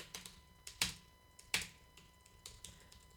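Quick, soft typing on a quiet computer keyboard, keys pressed as fast as possible while the keyboard is switched off: a steady patter of light clicks and two sharper, louder key strikes, with no talking.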